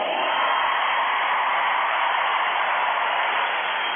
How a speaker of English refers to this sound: Isn't that amazing? Thousands of people went crazy.